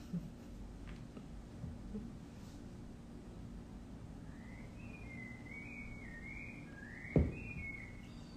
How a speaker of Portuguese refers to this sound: Vocês vão ouvir o Sabiá cantando aqui no meu espaço.